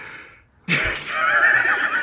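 A horse neighs loudly, a single drawn-out whinny that bursts in after a brief quiet moment and holds, quavering, to the end.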